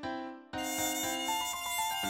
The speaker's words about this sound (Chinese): 这个时候啊，一只蚊子刚好飞到了爸爸的额头上。